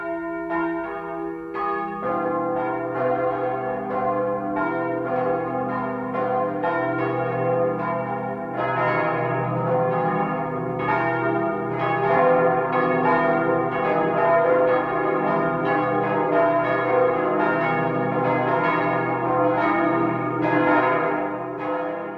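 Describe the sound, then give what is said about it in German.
Several church bells in Vohburg, Upper Bavaria, ring together in a dense, continuous 12 o'clock noon peal, their overlapping strikes and long humming tones layering into a rich, steady clangor with no voices. “Das Mittagsläuten kommt heute aus Vohburg in Oberbayern.”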